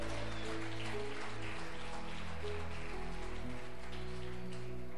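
A church audience applauds God in a dense, continuous wash of clapping that holds steady throughout, with sustained low musical chords playing underneath and no one speaking.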